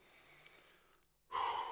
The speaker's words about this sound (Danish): Og så læg en hånd på, træk vejret ind i næsen, ned i maven og puste luften ud.